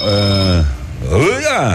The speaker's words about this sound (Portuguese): tá muito alto esse telefone aqui. Ué? Põe no chão então.